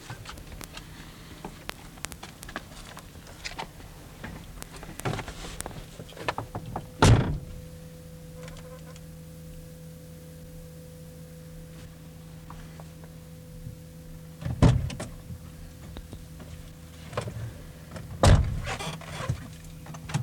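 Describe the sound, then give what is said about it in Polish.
Someone gets into a car: a few sharp door thunks and clunks, with rustling movement and a low steady hum in between, and no talking. “A teraz wsiądę do samochodu i zobaczymy jak będzie w środku.”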